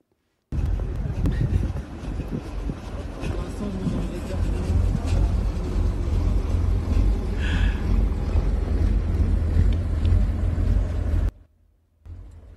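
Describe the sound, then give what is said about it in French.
Older-model armored vehicles, not the new Centaur models, rumble past, a loud, continuous low engine drone with rattling tracks, wind buffeting the microphone, before cutting off abruptly near the end. “Non, mais vous allez voir, on peut répondre à la souffrance avec des blindés.”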